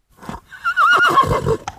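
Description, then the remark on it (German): A horse neighs once, a loud whinny with a wavering, shrill pitch that rises and falls before breaking off, followed by a short snort. “Pferd.”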